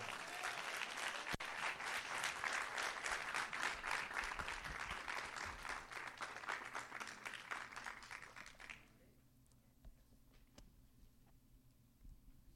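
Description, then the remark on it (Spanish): A church audience bursts into sustained, dense applause for the Lord, many hands clapping in a steady loud patter for about nine seconds before it stops abruptly, leaving quiet background hum. “Si usted lo recibe, denle un aplauso fuerte al Señor.”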